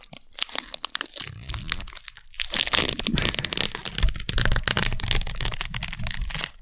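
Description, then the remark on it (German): Playing cards spilling onto the floor, a dense run of papery flicks, slaps and crinkles that keeps going for several seconds at steady loudness, with no voices. “fliegen alle Karten auf Dieses den Boden.”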